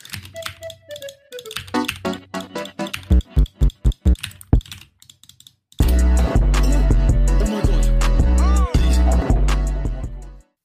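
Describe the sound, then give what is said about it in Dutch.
Quick bursts of keyboard shortcuts typed on a computer keyboard, irregular clicks and taps with short tones mixed in, then a loud, dense backdrop with a steady thumping beat takes over. “je hoort ze zo allemaal toetscombinaties op -huh. een toetsenbord doen.”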